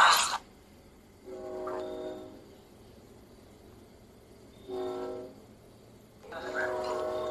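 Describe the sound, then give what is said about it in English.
A train goes by with steady rumbling, and its horn sounds in three separate blasts, each a second or so long, cutting through the background noise. “Why is there always a train when we film?”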